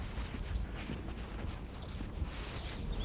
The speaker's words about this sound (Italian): senti quanti uccellini, mamma bello. Camminiamo in mezzo a questi alberi.